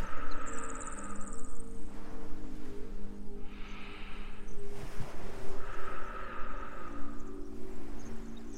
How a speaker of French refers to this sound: Toujours bercé par ce clapotis, et vos propres respirations.